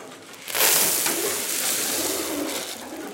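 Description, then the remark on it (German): Pigeons coo softly in a dovecote, their low murmuring calls half-buried under steady rustling and fluttering noise, with no one speaking. “Jeden Tag sieht jemand vom Projekt nach den Tauben.”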